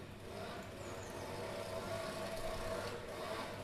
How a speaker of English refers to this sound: that's Arnold outside on his motorcycle